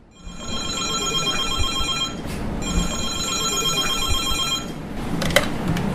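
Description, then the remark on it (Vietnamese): A telephone rings with a bright electronic trill in two long bursts separated by a short pause, moderately loud over a steady background hum. It rings at the intensive care centre of Field Hospital No. 16 in Ho Chi Minh City, which treats critical COVID-19 patients, with calls requesting admission of patients. “Điện thoại đến đề nghị nhận, đề nghị nhận bệnh nhân, người ta vẫn cứ dồn đến cái lúc đầu kinh khủng.”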